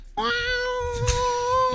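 A single drawn-out cat meow sound effect, loud, holding a steady pitch for over a second and a half with a slight rise at the end, with some faint background noise.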